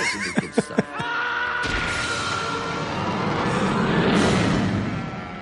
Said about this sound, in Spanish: Ese sonido al final que habéis oído era el oso que Hércules pone en órbita tras una pelea. Y, cuando pone que pone en órbita es que lo pone en órbita, ¿vale?